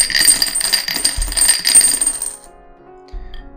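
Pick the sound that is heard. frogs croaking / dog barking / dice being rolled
dice being rolled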